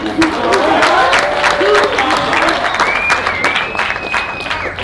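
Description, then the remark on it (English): A crowd at a late-night press conference applauds the two-time world heavyweight steadily for about five seconds, a dense, loud patter of many hands clapping, with some whistles and cheers rising above it and voices mixed faintly underneath. “I know it's uh, very late, but I think uh, we should have a little round of applause for the two-time world heavyweight.”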